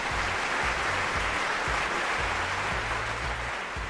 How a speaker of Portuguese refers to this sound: Isso, agora sim, palmas, mais palmas, muito mais palmas.